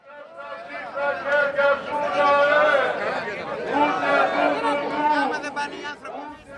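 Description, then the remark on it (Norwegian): Thousands of demonstrators shouting together on Syntagma Square next to the Greek parliament in Athens, calling for the people to rise up and take Greece out of the EU; a dense, loud wall of overlapping voices that swells and holds steady for several seconds before easing slightly at the end. “Det roper tusenvis av demonstranter på Syntagmaplassen rett ved det greske parlamentet i Aten.”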